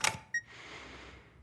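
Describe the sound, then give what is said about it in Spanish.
A short plastic scrape and click as a keycard slides into the slot of a hotel room door, then a quick electronic beep and a soft mechanical whir as the door lock releases, fairly quiet, with no voices. “Estoy sentada en la cama cuando oigo la tarjeta de acceso deslizarse por la rendija en la puerta de la habitación del hotel.”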